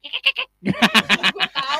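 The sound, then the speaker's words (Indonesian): A voice imitates a dolphin's chatter: four quick, high squeaky chirps, a short pause, then a rapid run of shrill, pulsing squeals, fairly loud with no speech. “Atau enggak yang suara uh, lumba-lumba yang.”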